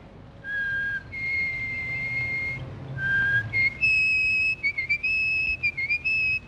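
A person whistles to communicate: several clear, sustained whistled notes at shifting pitches, rising to a higher tone and breaking into short choppy bursts at the end, with no talking. It is Ugo Tognazzi in a film as a deaf-mute tailor who speaks by whistling and gestures.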